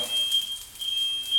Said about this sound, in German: Oh, oh, jetzt brennt hier alles. Ah, das ist der Rauchmelder.